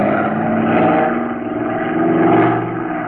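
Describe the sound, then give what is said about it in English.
A steady, loud propeller airplane engine drones continuously in flight, its low harmonic hum swelling slightly and easing with no pauses or voices. “Can you get about 10 or 15 miles ahead of her and find a place to sit this plane down?”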